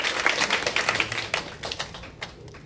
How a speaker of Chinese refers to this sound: 来，我们把掌声呢来迎接这台影片开始。